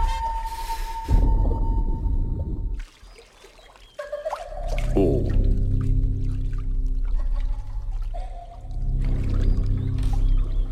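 Water splashes and sloshes in a swimming pool, fairly loud, with a low underwater-like rumble and drawn-out eerie tones, in the trailer for the horror film La Piscina. A brief quiet dip comes midway, and no one speaks.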